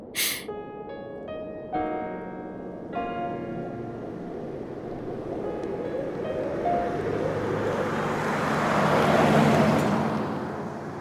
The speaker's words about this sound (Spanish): Bien, niña, estamos en el auto. Te contactamos cuando lleguemos al aeropuerto.